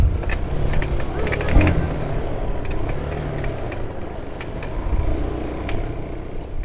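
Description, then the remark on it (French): A motorcycle engine drones steadily while riding toward Liabiondo, with scattered clicks and rattles over a rumbling, bumpy low end, as if jolting along an uneven road that is hard to reach by car. “Euh, en direction de Liabiondo sur une moto parce que euh, la route euh, est difficilement accessible en voiture parce qu'il faut traverser une rivière avec un pont qui est cassé.”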